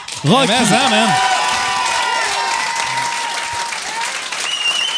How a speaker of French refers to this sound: Puis, merci, merci d'applaudir. Mais... Merci d'applaudir, mais ça, ça veut juste dire que ma carrière finit jeudi c'est.